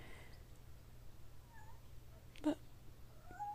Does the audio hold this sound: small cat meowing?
yes